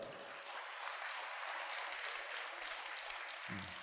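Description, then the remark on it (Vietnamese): A crowd claps steadily for a few seconds, a big round of applause for a man from an accounting company seated at the back, a dense, even wash of many hands with no voices, holding constant before cutting off at the end. “cuối cùng kia một chàng vỗ tay thật lớn”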